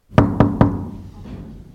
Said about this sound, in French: Moi, je suis venu ici il y a 30 ans, avec mon micro, et j'ai frappé aux portes chez les gens pour voir un peu qui habitait. Et au quatrième étage, si ma mémoire ne me fait pas défaut, j'ai frappé à la porte.